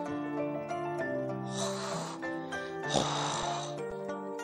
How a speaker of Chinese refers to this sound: 怪异的声音喘息着，又似乎在寻找什么。